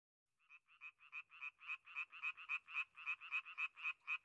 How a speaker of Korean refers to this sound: 연못에도 금세 물이 채워지고 개구리가 울기 시작했지.